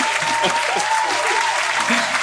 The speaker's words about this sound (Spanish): me toca presentar al payasito que siempre trae batita y siempre trae su paletita para los niños al tremendísimo payasito, doctor Chupo. ah, cabrón, aplausos.